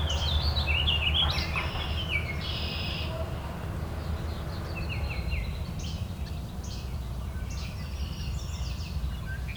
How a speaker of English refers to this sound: Least flycatcher.